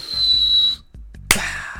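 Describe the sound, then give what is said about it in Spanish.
A person imitates a firework with a steady, high whistled tone lasting under a second. After a brief pause comes a sudden, sharp mouth-made burst that fades into a hissing crackle, clear. “Los, fuegos artificiales. ¿Cómo, suenan? Ah, es que yo no sé chiflar.”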